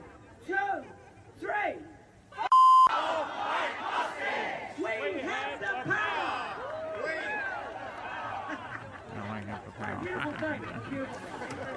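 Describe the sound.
A large crowd of protesters chants and shouts together on the steps of Parliament in a loud, continuous mass of voices. It is preceded by a couple of isolated shouts and a brief, steady electronic beep.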